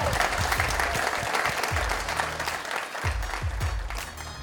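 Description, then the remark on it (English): A crowd claps steadily in sustained, dense applause, the sound of many hands together filling the space at a consistent, fairly loud level throughout. “Let's give him a round sure. of applause”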